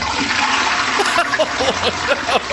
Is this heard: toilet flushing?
yes